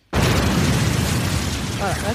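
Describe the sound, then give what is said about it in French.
A sudden, loud explosion sound effect, added in editing, bursts in and keeps roaring as a dense, rumbling blast for about two seconds, with a voice briefly audible underneath near the end. “Je mettrai des bruits d'explosion au montage.”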